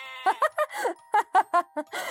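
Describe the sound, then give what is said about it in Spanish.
A rapid series of short, wavering sheep bleats, about eight in quick succession, loud, with only brief pauses between them and no talking. “En las calles del pueblo saltaba para asustar a las personas y en la granja saltaba de entre la paja para asustar a las ovejas.”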